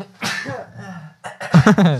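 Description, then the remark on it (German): A sudden sneeze with a voiced, drawn-in buildup followed by a sharp, loud burst near the end, fairly short and with no talking around it. “Gesundheit.”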